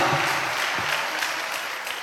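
A crowd claps together in sustained, dense applause, steady and fairly loud throughout, applauding the Lord.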